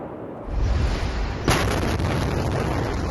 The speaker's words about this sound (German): Fast 3000 Tonnen Ammoniumnitrat explodierten vor knapp einem Jahr in der libanesischen Hauptstadt Beirut.